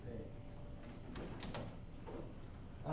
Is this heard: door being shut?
yes